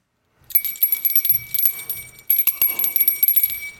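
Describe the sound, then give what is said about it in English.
A small bell rings and jingles brightly in two bursts, its metallic shimmer sustaining with a steady high tone, loud with no voices. “Every time a bell rings, we give our top five.”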